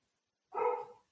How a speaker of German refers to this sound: Na, hört mal hier. Ach, mein Hund.